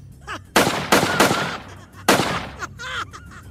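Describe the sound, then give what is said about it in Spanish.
Rapid bursts of gunfire crack out loud in a warehouse, several shots in quick succession with brief gaps, echoing slightly, with faint higher chirping sounds in between. “Su risa también resonó por el depósito mientras comenzó a disparar rápidamente.”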